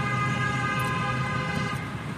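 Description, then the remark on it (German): A car horn blares in one long, steady, continuous honk, loud, on a street just after thunder as it starts to rain, with low street rumble underneath and no one talking. “Und es wird auch schon gehupt.”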